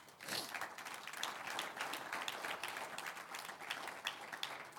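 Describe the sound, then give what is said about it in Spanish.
A crowd breaks into steady applause for the Lord, many hands clapping together in a dense, crackling wash that holds at an even level for several seconds with no talking. “Un aplauso al Señor.”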